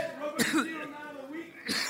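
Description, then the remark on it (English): Two dry, raspy coughs, one early and one near the end, with a faint voice murmuring in between. “See, once I said coughing, I started coughing, but it was a dry one.”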